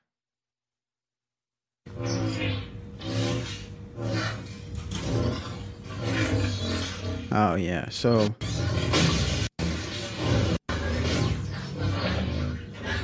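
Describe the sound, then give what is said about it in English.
Humming, lightsaber-like electronic swooshes from a phone app rise and fall in quick bursts, loud, with brief abrupt cutoffs between them, set off by body movements, while a person talks briefly over the effects. “So they, I mean, they just have different types of sounds, like a lightsaber sound, and they per, they set it to go off when you have movements, so when you move around or something.”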